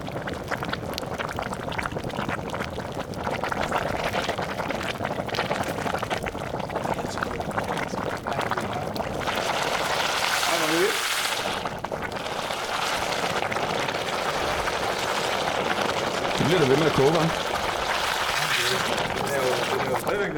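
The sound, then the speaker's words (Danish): A metal casting at nearly 1000 degrees, lowered into water to cool, hisses and roils as the plaster boils off it, a dense, steady seething and bubbling that runs throughout, fairly loud, with faint voices murmuring underneath. “næsten 1000 grader, så det tager sin tid at koge den af. Fed lyd. Så lige nu koger den alt øh, gipsen af.”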